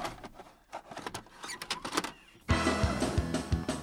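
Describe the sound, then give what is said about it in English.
A VHS tape is pushed into a VCR: mechanical clicks and a motorized whir as it loads, then a louder, fuller hum kicks in partway through and continues. “Y- yeah, of course VHS. Let's let's let's pop her in.”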